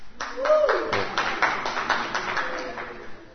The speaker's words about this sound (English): Yeah, you're going to really be embarrassed you clapped us in.